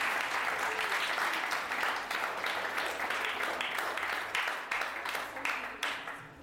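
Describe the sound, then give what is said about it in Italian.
Sustained audience applause, a dense wash of many hands clapping at steady loudness, tapering slightly near the end with no voices standing out. “ma scusa, è un applausometro!”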